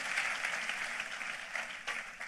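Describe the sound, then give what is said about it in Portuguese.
A crowd claps steadily in applause to God, a dense, continuous patter of many hands filling the space, sustained without pause, with no voices standing out above it. “Vamos aplaudi-lo, porque nós temos a quem clamar, nós temos em quem confiar.”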